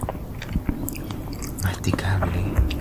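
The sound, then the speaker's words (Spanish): Soft, wet chewing of a mushy banana, with steady irregular squishy mouth sounds and faint breathy noises over a low background hum. “El plátano es. Y el plátano. Sumamente blando. Sumamente blando. Masticable.”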